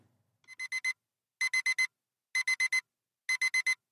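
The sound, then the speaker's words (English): An alarm clock beeps in quick bursts of four sharp, high-pitched tones, each burst repeating about once a second, loud with nothing else around it. “How do we know when to wake up without an alarm?”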